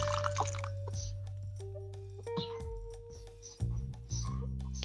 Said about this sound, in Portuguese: E eu esqueci de pegar água, eu tô molhando a boca com café. Agora vocês imaginam aqui o quanto de café que eu já bebi conversando com vocês aqui. O café de hoje tá rendendo.